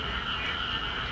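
A dense, unbroken chorus of frogs and toads croaking mixed with cicadas, forming a steady layered drone with a shrill buzzing on top, fairly loud throughout with no voices. Recorded through a window in Zhengzhou on the night of July 19 just after heavy rain, from a flat over ten floors up; the sound came from distant ground.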